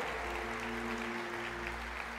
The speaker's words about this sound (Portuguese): Dê um forte aplauso, família, para Jesus. Pode ser melhor, pode ser mais intenso.